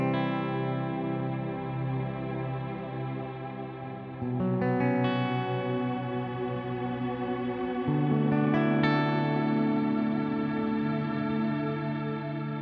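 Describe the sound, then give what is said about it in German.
Sustained electric guitar chords played through an amplifier and speaker cabinet wash out with heavy reverb, shimmering chorus and trailing delay echoes, changing to new chords twice, played alone with no voices, lush and fairly loud throughout. “Da habt ihr jetzt mal gehört, also der äh, Reverb hat in dem Fall schon ziemlich viel äh, von dem Sound gemacht, aber der Rest hat dann noch so ein bisschen aufgefüllt.”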